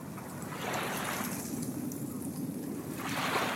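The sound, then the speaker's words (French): Steady ocean wave sounds from a relaxation app wash in broad, soft swells of surf noise, rising and receding about twice over a continuous low rumble, with no voices present. “Ah, des vagues.”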